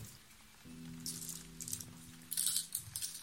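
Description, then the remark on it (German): Teeth click and clatter as they are set down on a table in a few short bursts during a card reading in a tent, with a steady patter of heavy raindrops on the tent in the background. “Und sie legt erst ein paar Münzen hin dann Zähne.”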